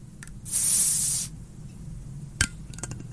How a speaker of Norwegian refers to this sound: bare jekker opp en bruskork. Rett og slett, Dette er som en, en litt stor, velvoksen flaske med ja, druemost.